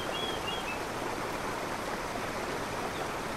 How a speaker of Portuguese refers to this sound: Podemos ouvir as águas se avolumando.